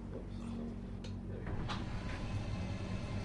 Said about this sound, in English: So if we go to this other room through the doorway, and uh, this is all inside a container. Yes. So I'll just pull the door the roof back slightly.